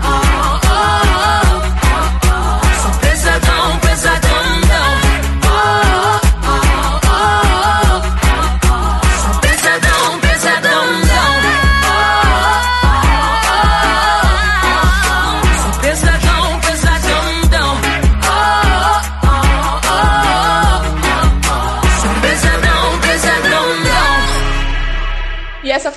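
A loud song with a female singer plays throughout over a heavy, driving bass beat, with a brief drop in the low end midway before the music cuts off abruptly at the end.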